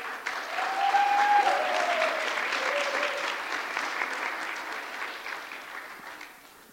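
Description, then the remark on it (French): A church audience claps steadily for several seconds to encourage a person invited to come forward to speak, a dense, fairly loud wash of applause that swells early, then slowly thins and fades, with a few brief whistle-like tones near the start. “Je l'ai invité à s'approcher. Est-ce qu'on peut l'encourager”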